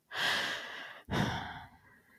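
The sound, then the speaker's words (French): A child, after sobbing, draws a deep, unsteady breath, then after a tiny catch lets it out in a long, trembling exhale, with no one speaking. “Et là, elle entend son fils prendre une grande inspiration. Vous savez, celle d'après les sanglots.”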